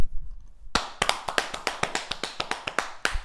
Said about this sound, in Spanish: Un aplauso, pido un aplauso para la gente que regala gift card.